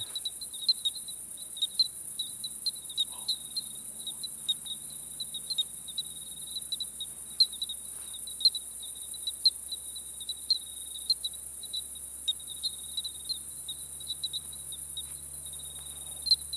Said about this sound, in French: Et là, on entend le chant d'appel des grillons testacés. Parfois, on peut percevoir le, le chant de cours, qui est une série euh, continue de téléliling.